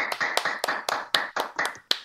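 A small group claps hands in a steady, fairly quick rhythm, each clap a sharp bright crack blending with the others into a continuous patter for about two seconds, with no talking.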